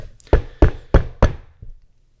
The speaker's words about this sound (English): Uh oh. Oh boy, the gavel is being slammed. Court is now in session.